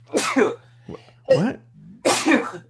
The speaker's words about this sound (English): I'm sorry, that just, hit. I just sneezed.